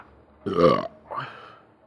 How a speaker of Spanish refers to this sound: Sí, erupté en ese momento.